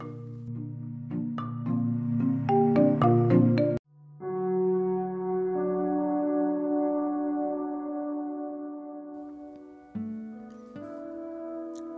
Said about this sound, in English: So perhaps on this poem, Time Trip After Midnight, you can take a little bit of a uh, time trip with me as we listen to the bells toll on the grandfather clock.